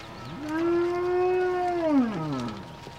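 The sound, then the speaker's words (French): A single long, loud dairy cow moo, a low sustained tone with rich harmonics that holds steady for nearly two seconds, then bends downward and fades at the end. “C'est la vache préférée à, ma femme.”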